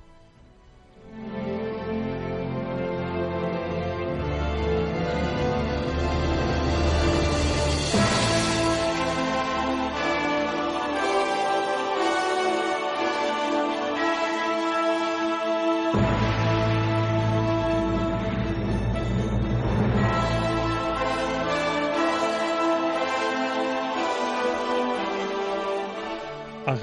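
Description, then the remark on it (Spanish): Dramatic film soundtrack music plays on its own, loud and full, with sustained layered tones that swell to intense peaks and a heavy low bass entering partway through. “Una fotografía con música impactante que suena así.”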